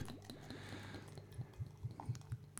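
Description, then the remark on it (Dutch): Beer is poured into a glass, with a soft fizzing hiss and a quick run of rhythmic glugs toward the end. It's fairly quiet, with no talking. “Ik schenk hem even in.”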